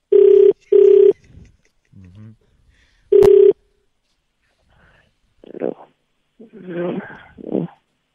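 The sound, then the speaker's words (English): A telephone ringback tone while dialing out on a call from Mexico to South Africa: two quick, loud steady tone bursts, a pause, then a third, followed by muffled voices speaking over the line. “Uh, let's see if we can get the phone call up. Okay, All right, it's ringing.”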